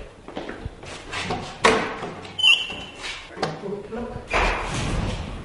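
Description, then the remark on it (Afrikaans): A heavy old jail cell door, to the former sick bay cell where sick prisoners were treated, is worked open with scraping, a sharp metallic squeal and several clunking thuds, followed by a broad rushing grind as it swings. “Kom ek gaan maak oop.”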